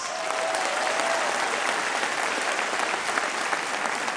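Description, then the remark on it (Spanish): Steady applause from an audience for migrants, a dense, even wash of many hands clapping at a constant loudness for the whole stretch, with no talking over it. “Un aplauso para los migrantes.”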